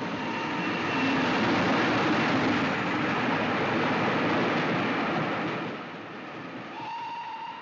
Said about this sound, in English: We hear the sound coming back from the trains.